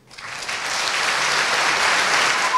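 Audience applause rises quickly and holds steady as a dense, continuous wash of clapping from many hands, fairly loud throughout, with no voices over it, as the 'bifurqueurs' call on their fellow students to change course.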